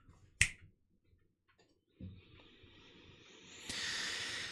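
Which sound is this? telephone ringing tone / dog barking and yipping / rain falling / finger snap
finger snap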